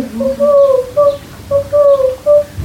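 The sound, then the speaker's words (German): A child's voice imitates an owl using only the mouth, hooting about five times in a quick, slightly uneven series, as schoolchildren act out forest sounds for a recording. The hoots are clear, with no other talking. “Mach nochmal deine Olle.”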